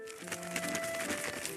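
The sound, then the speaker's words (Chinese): A cuckoo flaps its wings late at night in a quick, fluttery burst of soft papery beats lasting under two seconds, as it flies in through a window left slightly open, with a faint steady musical tone humming beneath. “这时，突然传来一阵小鸟扑棱翅膀的声音。”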